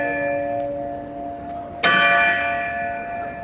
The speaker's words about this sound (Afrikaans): Ons begin met 'n besoek aan die oudste slaweklok wat vandag nog met sy 300 kg te sien en te hoor is by die kasteel De Goeie Hoop. Dit is die gelui van die groot klok by die hoofingang van die kasteel.